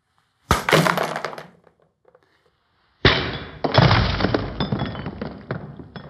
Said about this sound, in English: There, what you saw is that the bottom broke out when I hit it in the same way. What's going on?